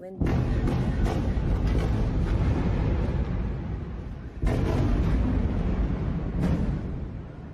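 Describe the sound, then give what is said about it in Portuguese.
Loud explosions in Gaza, heard while a journalist was recording a video explaining the situation there, boom and roll continuously, with a fresh blast hitting about midway and another near the end, their heavy rumble filling the whole recording. “Ela estava gravando um vídeo explicando a situação lá quando foi interrompida pelos sons de explosões.”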